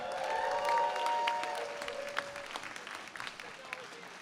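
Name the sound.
audience applause and cheering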